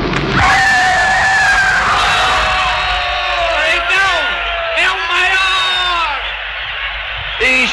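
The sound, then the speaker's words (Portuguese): A sharp scream rings out, then a huge stadium crowd at the Maracanã erupts in a roaring goal celebration, loud and sustained, with yells and whoops rising over the din. “O gol no Maracanã, tem lá o, ele gritando e aí o grito do gol.”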